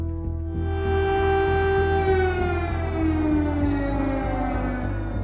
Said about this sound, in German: Sirenen in Kiew. Der Krieg hat begonnen.